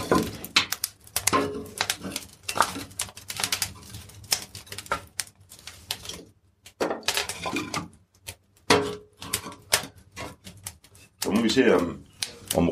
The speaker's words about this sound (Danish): noget ild, det bare æder sådan noget træ, der er lige så stille